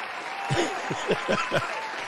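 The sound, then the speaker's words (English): Scattered applause from a small crowd, a handful of uneven claps over a steady noisy background, fairly soft and lasting only a couple of seconds. “Let's give this ninja a round of applause.”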